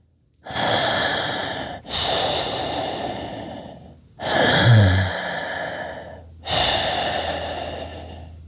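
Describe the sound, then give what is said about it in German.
Four loud breaths with a hissing, airy quality, each lasting one to two seconds with brief pauses between, from a person breathing into a microphone. No one speaks. “Ähm, das fängt allein schon beim Atmen an.”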